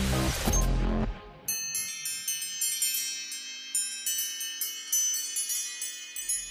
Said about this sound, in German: Ja, genau so klingt es, wenn ich aufstehen muss. Ich habe wirklich sehr viele Weckertöne auf meinem Handy angehört und mich dann für diesen Ton entschieden, weil ich ihn beschwingend sanft fand.